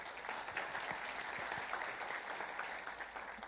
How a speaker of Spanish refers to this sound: Un aplauso